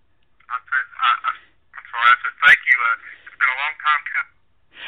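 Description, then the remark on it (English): A voice over a cell phone line, thin and tinny, breaking up into choppy bursts with brief dropouts that leave the speech garbled and hard to follow. “If if there's a little breakup, uh, I apologize to everyone. It's uh, probably coming from my cell phone that uh, has a mind of its own sometimes.”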